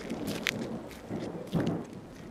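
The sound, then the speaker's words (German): A thunderstorm breaks on arrival at the hilltop Kloster Kirchberg, a former Dominican convent, drenching the walkers: steady rain hisses throughout and low rumbles of thunder swell up now and then, fairly quiet, with no voices. “oben angekommen gibt es allerdings ein Gewitter, das uns klatschnass in das ehemalige Dominikanerinnenkloster eilen lässt.”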